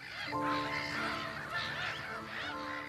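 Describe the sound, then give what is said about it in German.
A dense chorus of water birds calling continuously on a salt lake, overlapping honking and chattering cries at moderate volume, with no talking, like a large flock gathered on open water. “Und Vögel haben wir drin, oder? Jede Menge, ja.”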